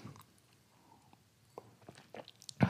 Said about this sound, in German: Deswegen trinke ich erstmal noch einen Schluck Wasser. Prost.